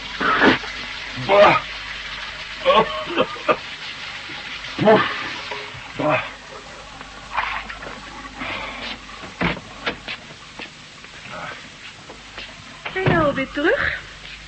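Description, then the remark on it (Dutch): Water runs from a bathroom tap in uneven bursts, with splashing and gurgling as it starts and stops, amid faint movement sounds, as someone freshens up with a bit of water. “Alleen een beetje opgefrist. Beetje water in mijn me”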